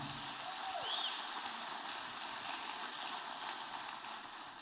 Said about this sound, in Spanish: Ahora darle un fuerte aplauso al Señor.